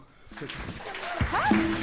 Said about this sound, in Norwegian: Og til slutt en liten applaus til eh, de to.